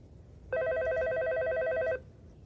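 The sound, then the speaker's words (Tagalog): A telephone rings in one sustained burst of about a second and a half, a bright, rapidly trilling electronic tone with stacked harmonics, loud against a low background hum, with no voices. “Ba't matawag ka ng tawag, ha?”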